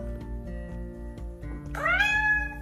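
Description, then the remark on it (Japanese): A single drawn-out cat meow rises in pitch near the end, fairly loud over a steady low hum, with no one talking. “うちのにゃんこもですねめっちゃよく寝てるんですよねまあ猫はね本当にあのよく寝るのでね”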